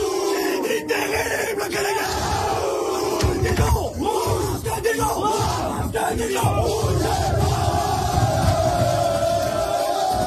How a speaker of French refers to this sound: pour son terrible cri de guerre